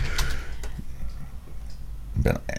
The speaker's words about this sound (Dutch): Mij, mij dingen zien opzoeken, op, eh, op, horen, horen opzoeken op het internet. je hoort ook het toetsenbord klingelen.